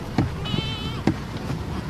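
A herd of Boer goats crossing a dirt road in a remote area of Limpopo bleats, with a few short, wavering calls overlapping one another. No one speaks, and faint outdoor ambience sits underneath.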